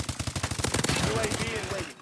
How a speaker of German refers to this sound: Also man läuft durch ein virtuelles Schlachtfeld und knallt seine Mitspieler ab. Das Spiel heißt Call of Duty Modern Warfare.